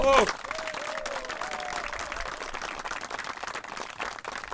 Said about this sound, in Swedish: Men ni gjorde det jättebra. Så jag vill att vi alla ger dem en, en stor applåd.